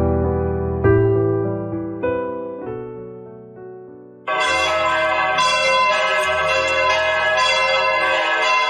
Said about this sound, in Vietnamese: tiếng chuông vang lên dồn dập làm ngắt quãng cuộc nói chuyện của hai người